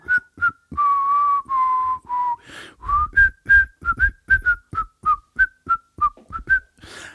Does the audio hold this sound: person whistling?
yes